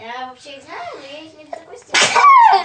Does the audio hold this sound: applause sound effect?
no